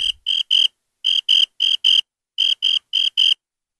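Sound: crickets chirping sound effect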